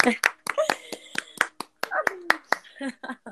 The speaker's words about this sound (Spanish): Un aplauso para todos, sí. Eh. ¡Aplauso! ¡Eh! ¡Un aplauso! un aplauso